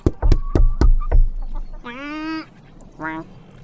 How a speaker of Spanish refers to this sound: Temprano por la mañana, el pato tocó a la puerta.